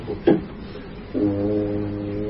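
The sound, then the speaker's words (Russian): A voice imitates the hooting call of a special summoning pipe: a short sharp sound, then a steady, droning hoot held for over a second, loud with no other talk. “А у него на пятой ноте, когда он гудит, да, он берет дудку, у него специальная дудка для призыва в опер.”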